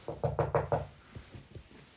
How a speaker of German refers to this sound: Irgendwie hier Klopf auf Holz.